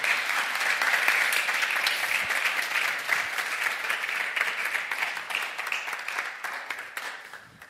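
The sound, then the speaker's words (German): A crowd applauds steadily, a dense wash of many hands clapping at once that holds loud and even throughout before easing slightly toward the end. “Das ist euer Applaus.”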